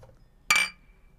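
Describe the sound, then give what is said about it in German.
A single bright, sharp clink of glasses touching in a toast, with a thin ringing tone that fades out over about half a second. “Und äh, Prost.”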